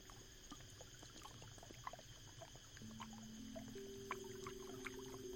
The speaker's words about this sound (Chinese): 你感受到大树的声音，你感受到兰屿的天池，在天池水流里。那泼泼的水声跟树木撞击的声音，